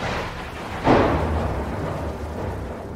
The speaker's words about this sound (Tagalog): Takot na takot ito sa lakas at kulog at buhos ng ulan. Nagsimula na rin ang humangin ng malakas sa labas. Isang napakalakas na bagyo ang biglang dumating ng Kabinyon.